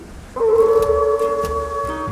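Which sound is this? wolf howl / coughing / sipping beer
wolf howl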